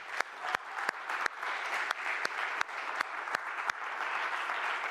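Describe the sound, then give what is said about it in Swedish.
An audience applauds steadily, many hands clapping in a dense, even wash with sharper individual claps standing out, sustained at a fairly loud level throughout with no talking. “Så att eh, jag tycker vi kan ge dem en, en applåd.”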